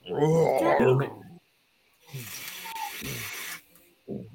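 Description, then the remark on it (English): A person imitates an animal roar with a loud, strained vocal growl, then follows it with a breathy, rasping snarl. A brief grunt comes at the end. “Um, however, upon waking up, you do as everybody gets up, you do notice you hear the sound of an animal coming your direction.”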